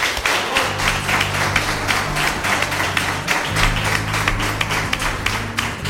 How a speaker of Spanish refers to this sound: Daos el último aplauso de hoy a vosotros que os lo merecéis.